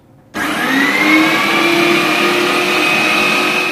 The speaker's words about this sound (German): Petra wirft den Fleischwolf an. Jetzt wird etwas laut.